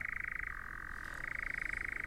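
A European nightjar churring: a steady, rapid mechanical trill that runs unbroken for the whole clip, dropping briefly to a slightly lower, smoother pitch in the middle before rising again.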